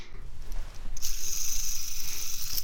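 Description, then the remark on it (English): A globe is spun, giving off a rapid, steady ratcheting click that keeps a fast even rhythm for a couple of seconds, with a bright rattly edge and no voices. “Today we will spin the globe.”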